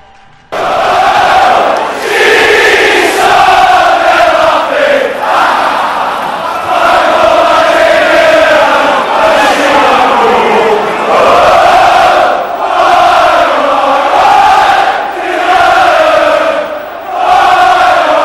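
A huge football crowd sings a chant in unison, a loud, sustained melody of massed voices rising and falling continuously, sounding like a song, with no pauses throughout.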